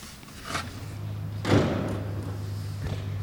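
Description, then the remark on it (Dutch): A seat in a research aircraft, where a researcher sits on top of the measuring equipment, is set back into place with two solid clunks, a lighter knock followed by a louder thud, over a steady low mechanical hum. “Ja, nogal stoel kan terug, want je kan erop. Ja, die gaat weer terug.”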